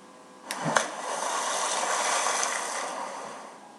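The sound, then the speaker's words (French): A sharp splash as someone dives into a swimming pool, followed by a few seconds of rushing, churning water that gradually fades. No voices. “Et eh oui, c'est le plongeon dans la piscine.”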